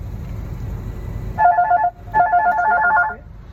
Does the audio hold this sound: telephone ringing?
yes